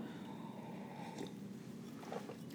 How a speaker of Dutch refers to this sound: Ik neem even een slok hoor, want ik eh, heb helemaal een droge keel, ouwe.